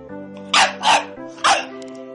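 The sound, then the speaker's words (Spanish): A dog barks three times, loud, two quick barks followed by a third after a short pause, over a steady, sustained musical hum. “Mi primer truco. Sacar el perro del sombrero.”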